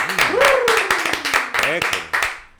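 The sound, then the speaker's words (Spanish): A few people clap in short, irregular bursts welcoming a guest, while voices call out and talk over the applause throughout. “un aplauso, compadre.”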